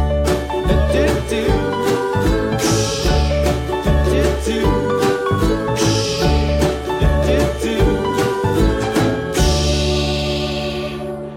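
A full band plays an instrumental song intro, loud and close, with a steady drum beat, sustained chords and a few cymbal crashes marking phrases; no voices.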